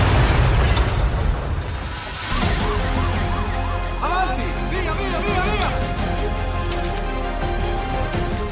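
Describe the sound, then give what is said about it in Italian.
A heavy, roaring explosion rumbles and fills the opening seconds, then warbling sirens rise and fall over continuing low rumble, with muffled voices mixed into the chaos. “Dopo l'esplosione nessuno l'ha più visto.”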